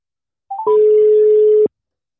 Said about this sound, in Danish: jeg får lov til at ringe til øh, deres bestyrelsesformand, øh, Michael Dahl. Så jeg ringer til Michael nu, og så øh, er I lige på, øh, på medhør øh, her undervejs.